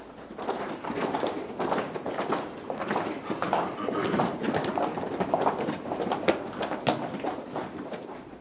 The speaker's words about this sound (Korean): 아침 8시 서울 지하철 시청역의 출근길 풍경입니다. 마음이 제일 급한 시간이죠. 구둣발 소리가 사뭇 비장합니다.